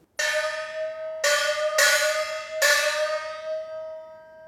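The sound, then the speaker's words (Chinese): A small Chinese hand gong (xiaoluo, also called shouluo or Jing xiaoluo), held in the hand and mostly used in Peking opera music, is struck four times in an uneven rhythm, each hit giving a bright, high metallic ring that overlaps the next and fades slowly after the last stroke. “这个姐姐拿的这个锣，它是叫小锣，我们又叫它手锣。”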